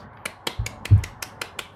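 A short burst of clapping, about eight crisp, evenly spaced claps in a steady rhythm, with a couple of low thumps in the middle. No voices.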